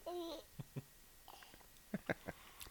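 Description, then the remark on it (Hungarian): A baby babbles: a short, high, sing-song coo, then a scatter of soft, brief syllables and little mouth sounds, fairly quiet and with no adult talking. “Kicsi, kicsi, lator, kicsi lator, mondj nekünk valamit.”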